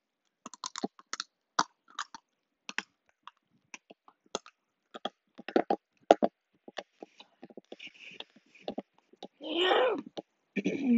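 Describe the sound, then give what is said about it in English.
Crunching and snapping of dry, brittle raw spaghetti being chewed, a rapid irregular series of sharp cracks, followed near the end by a few breathy, groaning vocal sounds. “Like, raw spaghetti is the best.”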